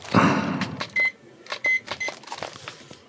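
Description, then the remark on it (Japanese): A digital timer gives three short, high electronic beeps, interspersed with sharp button clicks as it is started. Fairly loud, with no talking. “タイマーが、”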